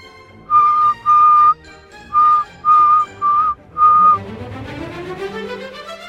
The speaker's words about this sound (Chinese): 莎拉走到墙边。跪在有个小洞的角落旁，低声吹起口哨。